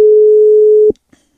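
A single loud, steady telephone ringback tone sounds for just under a second while a phone call to a reporter is placed. It is a plain mid-pitched beep that cuts off abruptly into near silence. No one speaks.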